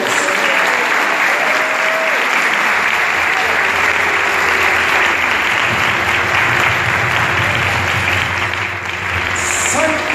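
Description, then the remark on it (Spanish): Sustained applause from an audience in honor of the 'sanquitaneros', a dense steady clatter of many hands clapping at full volume for about ten seconds, with faint voices and whistles mixed into the noise. “Un aplauso para ellos.”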